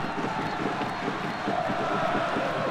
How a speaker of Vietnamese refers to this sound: Họ đang uh, ờ, hò reo Hát hò để cổ vũ cho uh, đội tuyển Singapore Và đó cũng sẽ là áp lực cực kỳ lớn với đội khách Myanmar